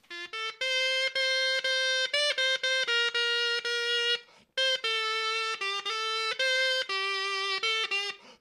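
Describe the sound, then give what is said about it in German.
A crumhorn, a curved reed instrument shaped like an upside-down walking stick, plays a loud, buzzy, honking reed melody in steady stepwise notes, pausing briefly midway before continuing; no voices are heard. “Und deshalb heißt es auch Krummhorn, weil es auch krumm ist.”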